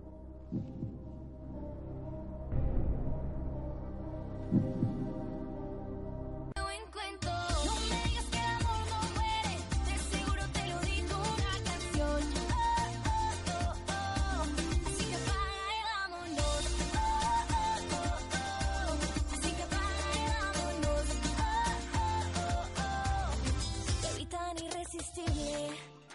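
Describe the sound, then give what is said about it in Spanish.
A pop song by a girl band opens with a quiet, sparse intro, then the full band kicks in and the track plays on loud and steady with a driving beat. “vengo a hablaros de un grupo musical que nos ha copiado el nombre del programa.”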